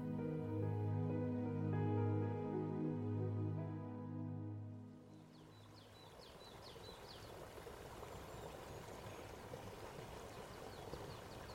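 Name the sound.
mountain river flowing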